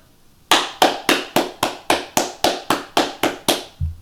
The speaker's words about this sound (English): All claps.